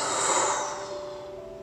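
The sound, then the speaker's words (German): A single long, airy exhale through an open mouth after breathing in through the nose and briefly holding, gradually fading away, with a faint steady tone lingering in the background. “Also wir atmen durch die Nase ein, halten ganz kurz und dann durch den offenen Mund wieder aus.”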